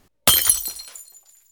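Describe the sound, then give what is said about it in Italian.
A glass vase, knocked from a glass table, smashes on a dark herringbone wooden parquet floor with a sudden loud crash, followed by a bright spray of tinkling shards that scatter and fade within about a second. “si scompone ora in una miriade di frammenti taglienti sparpagliati sul legno scuro del parquet a lisca di pesce la musica alta ha nascosto il fragore dell'impatto”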